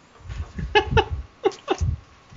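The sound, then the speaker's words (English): A person makes a quick string of strained, animal-like vocal noises, imitating a hissing creature, with several short bursts and no ordinary talk. “It sounds almost like you're hissing.”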